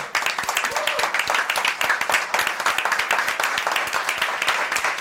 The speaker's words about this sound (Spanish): Solamente para felicitarte por la selección de tu película, en la sección oficial de Málaga. Un aplauso